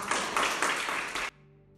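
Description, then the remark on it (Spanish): A crowd bursts into dense, steady applause given to Christ, many hands clapping together in a bright, sustained wash that cuts off abruptly after about a second, leaving a faint low hum. “Dé el aplauso a Cristo, hermano.”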